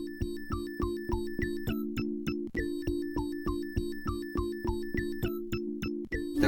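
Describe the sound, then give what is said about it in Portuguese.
Electronic keyboard music with two different sounds from a JP synthesizer: a steady sustained synth pad underneath while a second, brighter keyboard sound plays quick repeating melodic notes on top, with no talking. “Eu acho que estes dois teclados são dois sons diferentes do JP.”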